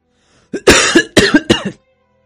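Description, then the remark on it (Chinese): A man coughs after choking on smoke from a tobacco pipe, a harsh, raspy fit of about four or five rapid bursts, the first short, the rest loud and phlegmy, lasting just over a second before silence. “烟呛得他一阵咳嗽，一阵浓痰呢泛了上来。”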